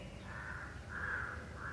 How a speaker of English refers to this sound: So we are asking, what is energy? That crow calling is part of energy.